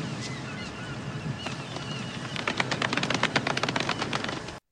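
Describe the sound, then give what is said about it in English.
Soft, polite clapping: a few scattered light claps at first, then a quicker steady run of small claps in the second half that stops abruptly. No one speaks. “Golf clap.”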